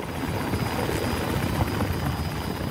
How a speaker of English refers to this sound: And the firefighters coordinated countless air rescues with the Coast Guard and other choppers to get hundreds of people out.